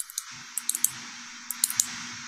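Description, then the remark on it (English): A pen clicks repeatedly in short bursts, about ten crisp snaps in quick pairs and triplets, over a faint steady electrical hum. “I'll, I'll, count some of the the noisemakers I've got. Oh here. yeah, like the pen.”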